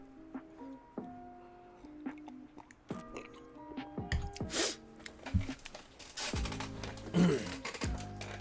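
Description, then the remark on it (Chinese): Someone takes a sip of water, with wet slurping and gulping sounds that grow louder toward the end, over a soft, steady musical tone with no talking. “呃，先喝口水。”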